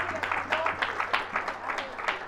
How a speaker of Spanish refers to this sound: Sí podemos aplaudir al Señor.